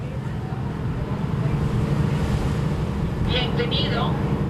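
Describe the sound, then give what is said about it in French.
A steady low engine drone and wind rumble fill the scene aboard the whale-watching boat Pouramilla in Samana Bay on a sunny morning, carrying about fifty tourists, with a few brief high-pitched chirps or calls rising faintly near the end. “Bienvenue sur notre bateau Pouramilla, d'où nous observerons les baleines aujourd'hui.”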